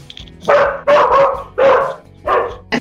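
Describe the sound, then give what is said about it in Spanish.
A dog named Tigre barks loudly, four sharp barks in a quick, uneven series with brief pauses between them and no one talking. “Creo que tu perro no le agradó la, la pregunta.”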